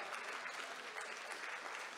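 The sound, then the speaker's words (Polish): Sustained applause from an event audience for the helpers called up on stage, a dense, steady patter of many hands clapping at once, fairly loud and even throughout, with no voices standing out. “Chodźcie, chodźcie, chodźcie, pomagaliście mnóstwo, chodźcie na scenę, bo to wam należą się brawa.”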